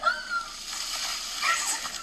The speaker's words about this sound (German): Ich habe ja auch meine Ice Bucket Challenge.